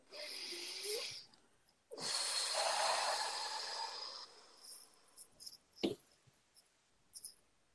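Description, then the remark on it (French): A breathy rush of air drawn in deeply, filling the lungs to the maximum in a breathing exercise, then after a short pause a longer, steady, slow exhale, with a few faint clicks and rustles afterward and no talking. “on va faire une respiration”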